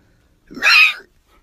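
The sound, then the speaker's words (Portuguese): A person imitates a dog with a single short, high-pitched vocal yelp or bark lasting about half a second, with no other sound around it. “Imita um cachorro.”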